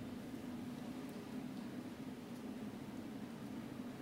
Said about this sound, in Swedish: Du hör det här äh, regnet som slår bara i bakgrunden.